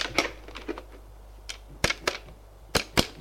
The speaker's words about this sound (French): Il prend son téléphone